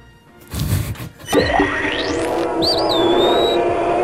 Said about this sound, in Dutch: Sterke jingle.